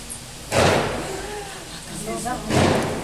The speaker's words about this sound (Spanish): Ay, no. ¿Se acuerdan que les dije? Esos son balazos.